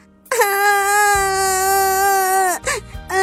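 A child wails loudly in one long, sustained cry with a steady high pitch, then breaks off and gives a couple of short, choked sobs at the end, crying over a lost lucky coin.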